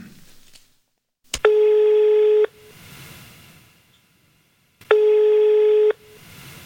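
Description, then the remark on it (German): A short click, then a steady telephone ringing tone as a call is placed to Bitkom e.V., sounding in two long, even bursts of about a second each, separated by a pause, with faint line hiss between them. “was hältst du davon, wenn wir sie einfach mal kurz anrufen und hören, was sie dazu zu sagen hat?”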